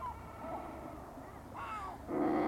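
Razorbill calls: a few low, hoarse, growling croaks over a steady low rumble, with the last call louder and more drawn out.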